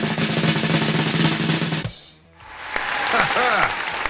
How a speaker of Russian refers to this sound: Звучат аплодисменты в вашу честь.